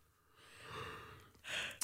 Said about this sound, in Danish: Smitter gab, hvis det kun er med lyd, hvis ikke du kan se dem, der gaber.